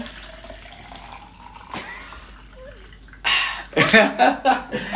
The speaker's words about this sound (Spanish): escuchan cómo me sirvo agua de jarrón. Escuchen.